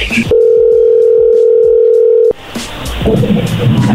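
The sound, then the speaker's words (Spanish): A loud, steady telephone tone holds at one pitch for about two seconds as a call is placed again, then cuts off abruptly and gives way to noisy line sound and faint voices. “Vamos a hablarle otra vez.”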